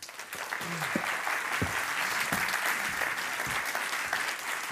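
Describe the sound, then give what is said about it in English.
An audience at a tech and democracy conference applauds steadily to welcome an artist whose work focuses on AI and democracy, a dense wash of many hands clapping that holds an even level throughout, with a few brief low vocal sounds poking through the noise. “Round of applause, Thank please.”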